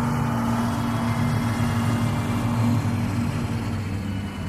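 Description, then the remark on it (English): Mr. Avery's truck drives in, its engine idling with a steady low rumble and a droning hum that holds constant throughout, no voices over it. “And with that, he walked out to meet Mr. Avery's truck as he drove in.”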